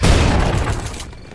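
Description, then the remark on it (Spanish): A loud explosive blast as the door of a house is blown open at 3 a.m. at the start of a GEO police raid: a sharp, booming burst of rumble and crackle that fades out over about a second, with no voices. “Tras explosionar la puerta de la casa, 16 geos entraron en línea, agrupados por parejas, con pasos coordinados”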